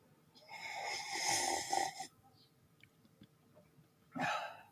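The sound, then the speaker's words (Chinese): Loud, airy slurping of hot tea: a long drawn-in slurp lasting nearly two seconds, a few faint small sounds, then a second shorter slurp. No one speaks. “给。我两分钟，主要是好烫，我我想把这口茶做完。”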